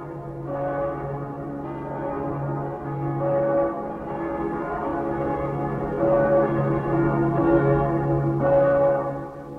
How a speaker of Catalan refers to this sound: Les campanes que ara sonen són de festa.